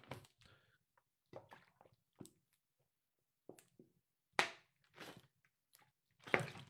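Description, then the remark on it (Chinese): Someone takes a drink of water: a scattering of soft wet mouth clicks and gulps, then a few louder swallowing bursts toward the end, with quiet pauses between and no talking. “我喝口水吧。”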